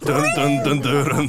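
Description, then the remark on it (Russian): A man's voice loudly sings a short, punchy melody on repeated nonsense syllables, imitating the Solid Snake theme music of a stealth video game, dry, lasting about a second. “открыл ее, начинает играть тема Солид Снейка.”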